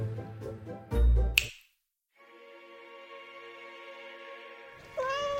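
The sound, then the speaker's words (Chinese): A cat named Jerry, in a painter's studio full of paint cans and brushes, lets out a long, drawn-out meow that holds steady for a couple of seconds, preceded by a sharp snap and brief pause, then rises into another whiny cry at the end. “不过有时候，他的猫咪会来掺一脚。”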